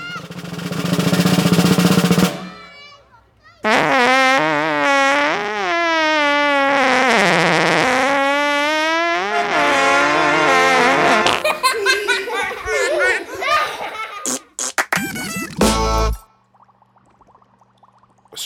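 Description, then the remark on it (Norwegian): A loud, buzzy fart into a jam jar rumbles for about two seconds, followed by long bursts of high, giddy laughter and a few sharp rattling noises before it goes quiet. “Så den skal jeg prompe nedi dette syltetøyglasset.”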